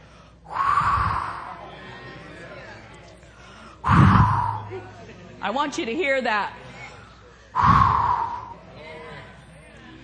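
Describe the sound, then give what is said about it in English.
Three loud, breathy whooshes blown straight into a microphone to imitate wind, spaced a few seconds apart, with a man briefly speaking between the second and third gusts. “The wind of the Holy Ghost is blowing in this place.”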